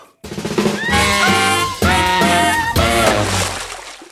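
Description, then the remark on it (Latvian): A loud wrong-answer quiz signal plays on its own: a brassy, harmonic jingle in three sustained sections, each holding stacked tones for about a second before the next begins. “Jūs tagad dzirdēsiet, kā skan uh, signāls, kad ir atbilde nepareizi.”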